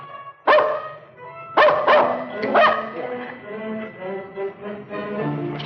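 A dog barks several times in sharp bursts, about three loud barks spaced a second apart, followed by softer whining yips.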